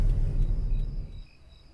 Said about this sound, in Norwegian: Jeg vet ikke om jeg klarer å fange inn disse lydene, da, men det jeg prøver å få fram, det er gresshoppene som kvitrer ganske sånn fritt eh, rundt oss. Vi er jo eh, på veldig sånn øde oppe på fjellet, egentlig.